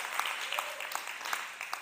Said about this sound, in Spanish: A ver, ¿cuántas vinieron ayer? Con un fuerte aplauso, estruendo.